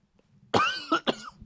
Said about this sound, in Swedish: Eh, det kanske hörs om jag hostar lite till och från. Ja, just det. Så är jag eh, väldigt förkyld.